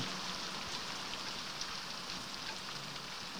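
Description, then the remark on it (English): Steady rain pours down in a continuous, even hiss, with soft patter of drops on a surface and no voices or other sounds breaking through. “Perhaps they'll be safe in the rain.”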